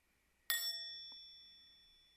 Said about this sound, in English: just follow the sound of the bell into your breath.